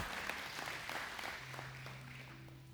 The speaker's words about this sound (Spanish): Denle un aplauso a ellos dos.